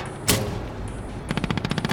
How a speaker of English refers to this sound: According to a memo later written by a district attorney, when one officer heard a gunshot, they all fired. Glass shattered. Bullets tore through the seats and the headrest.